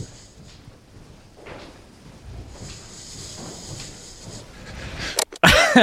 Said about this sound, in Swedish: Vad är det för andning? Ja, men jag ska säga det att det, det låter här... som någon som har kris.